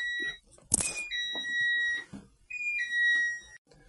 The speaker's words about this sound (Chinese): 哎呀，抱歉啊，闯入了一个门铃啊，但是没什么太大影响啊，我就接着录了。